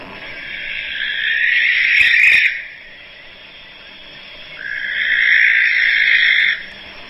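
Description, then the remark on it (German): Two long, harsh, hissing screeches from a barn owl, each lasting about two seconds with a short pause between. The calls are loud, with no talking. “Ja, sehr, also es ist schon ein krasser Schreien, ne?”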